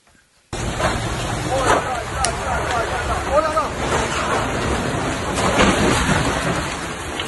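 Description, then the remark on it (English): Heavy rain roars in abruptly and keeps pouring steadily and loudly during an intense storm, thought to be in Switzerland near the French border, with low thunder rumbling beneath the downpour and faint voices calling out through the storm. “It's the high temps that get the headlines, mm-hmm. not the weird, intense storms.”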